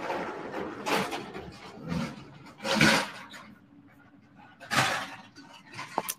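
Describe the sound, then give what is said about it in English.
A vehicle towing a trailer drives by, its steady low rumble broken by several loud, irregular bangs and rattles as the trailer bounces along. “Oh, somebody else is driving by with a trailer. You probably hear that bouncing around.”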